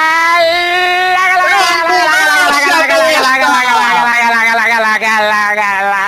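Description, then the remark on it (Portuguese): A voice imitates Kiko's ambulance siren from the Chaves show with one long, loud, unbroken wail that wavers slightly and slowly sinks in pitch over about six seconds, with no other talking. “Ele fez a ambulância do Kiko.”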